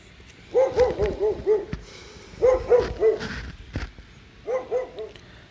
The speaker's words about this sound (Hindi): तभी कुत्ते तेजी से भौंकने लगे